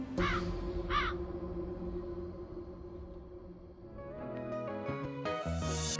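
A crow caws twice in quick succession near the start, harsh, over a sustained musical backdrop that grows fuller and brighter toward the end.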